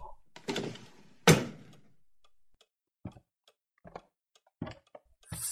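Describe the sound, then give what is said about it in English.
A filing cabinet drawer rattles open and slams shut with a loud metallic bang, followed by several quieter, evenly spaced clicks and knocks. “Filing cabinet? No.”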